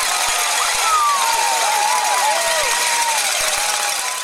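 A dense, continuous clamor of many cowbells clanging at once over a roaring crowd, loud, with no break across the whole stretch.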